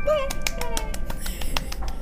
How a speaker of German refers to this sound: Der einsame Applaus.